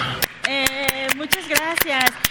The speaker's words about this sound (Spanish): yo desde aquí les doy un enorme aplauso.